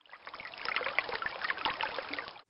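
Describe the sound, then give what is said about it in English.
Water trickles and splashes steadily for a couple of seconds, a busy patter of small droplets that stops abruptly, with no voices present. “and sounds in nature, things like dripping water, rain, thunder.”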